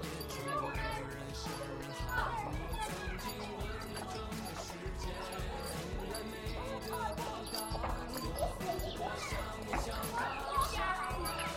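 A small bell on an ornament worn hanging on a person jingles over and over in an uneven, step-like rhythm, bright and fairly steady, with a background murmur of people, inside a maze at the Yuanmingyuan (Old Summer Palace).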